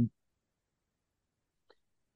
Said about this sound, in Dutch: Sorry, krijgen we de hik, merk ik.